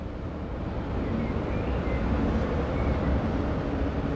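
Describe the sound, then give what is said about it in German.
A train rumbles steadily along railway tracks outdoors in the cold, by the grounds of the former Adlerwerke factory, a continuous low, heavy drone with faint higher squeals now and then, holding an even loudness throughout with no voices. “Jetzt öffnet sich der Blick auf die Gleisanlagen der Bahn.”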